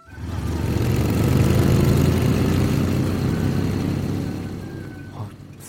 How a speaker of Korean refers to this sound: 뭐지? 저 순식간에 지나가 버린 거? 뭐저 여자 오토바이 타는 여자잖아.